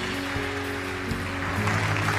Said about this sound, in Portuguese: Pode aplaudir o Senhor que é bom.